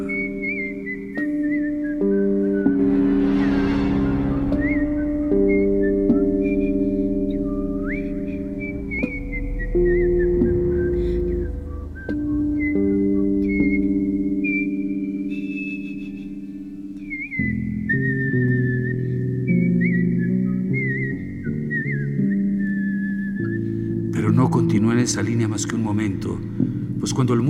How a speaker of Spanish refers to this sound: E incluso traté de animarle silbando algunas de las melodías que había oído la noche anterior.